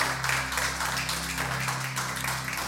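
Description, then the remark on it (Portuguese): A crowd applauds steadily in the name of Jesus, a dense wash of many hands clapping at once, with a low sustained musical drone or hum underneath throughout. “A ele é uma salva de palmas em nome de Jesus, porque é dele, é para ele, a glória é dele.”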